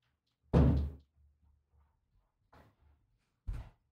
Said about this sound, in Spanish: Empezó una puerta a moverse sola en el set, lo que están preocupando.